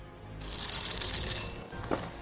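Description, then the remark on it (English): Milk pours into a bowl of Llama O's cereal: about a second of bright, crackling, hissy splashing that starts abruptly and then stops, followed by a brief faint clink. No one speaks. “Uh, if you're not watching on YouTube, this guy is pouring milk into a bowl of Llama O's cereal, and the milk turns into the chrome stuff that we that we saw in the teasers of the pictures before,”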